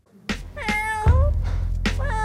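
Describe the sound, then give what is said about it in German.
A cat meows loudly, two or three drawn-out, wavering meows in quick succession with a steady low rumble underneath and no one speaking. “Mal haben es Katzen in den Podcast geschafft, ein anderes Mal Triechler.”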